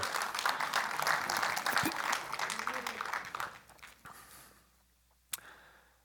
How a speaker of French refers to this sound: Soyez pas gênés, come on. Je sais que vous voulez applaudir.